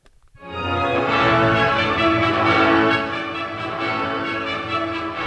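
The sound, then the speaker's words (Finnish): A full orchestra swells in after a brief silence, sustained strings and winds with rich, lingering resonance and no voices present; an anechoic orchestra recording combined mathematically with concert hall acoustics, ending with those of the Konzerthaus in Berlin. “ja me voidaan nämä kaiuttomat äänitykset ja sitten se pelkkä akustiikka niin yhdistää myöhemmin matemaattisesti, ja sitten tässä me kuullaan sitten ihan kun me istuttaisiin siellä oikeasti siellä konserttisalissa.”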